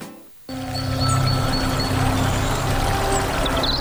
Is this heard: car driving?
no